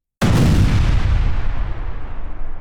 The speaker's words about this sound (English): the entire opening of the cannon clogged up with a big ball of ice. A second later, the entire cannon exploded